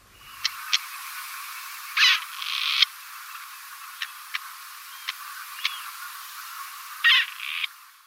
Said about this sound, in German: Ja, und da haben wir auch nochmal gehört, wie ein Rebhuhn klingt und wie wir es wiedererkennen können.